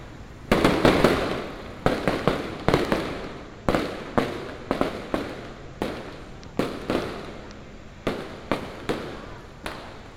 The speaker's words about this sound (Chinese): 在睡梦中听着烟火的声音，还有路人大喊。Happy New Year！